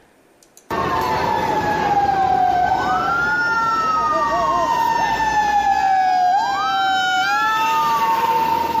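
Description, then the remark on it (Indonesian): A loud fire truck siren wails continuously, its pitch sweeping up and down in long cycles, with rumbling engine and traffic noise underneath, as fire engines are deployed to the fire at Suzuya Mall, a shopping centre in Banda Aceh. “Sejak dini hari tadi, 21 armada pemadam kebakaran dikerahkan ke lokasi kejadian.”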